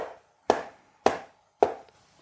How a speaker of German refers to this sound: Sie blieb stehen. Da war es wieder, in ihrem Rücken. Ein hämmerndes Schlagen, als klopfe jemand mit einem metallenen Instrument gegen die Karteikästchen.